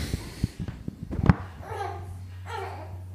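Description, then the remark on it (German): A baby babbles and coos in short bursts, with a few soft bumps and a low steady hum underneath; no adult speech is heard. “So, ich glaube, wir müssen eine kurze Babypause machen.”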